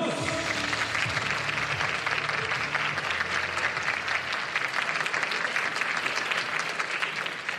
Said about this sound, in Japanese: エスパスパーに加わった9人の選手たち皆さん大きな拍手お願いします